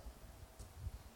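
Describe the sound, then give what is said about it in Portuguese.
Wind gusts buffet the microphone in low, irregular rumbling bursts, with a soft, steady hiss behind them. The sound is fairly quiet and continuous, with no voices. “Esse vento aqui não vai me ajudar.”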